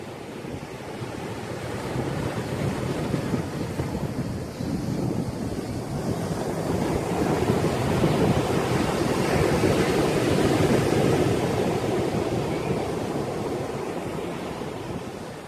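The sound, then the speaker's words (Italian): Ocean surf roars steadily against the shore, a dense rushing wash that swells louder in the middle before easing slightly, with some wind noise and no voices. “Gli indiani che abitavano qui chiamavano questo territorio Humaliwo, che significa L'onda scroscia rumorosamente.”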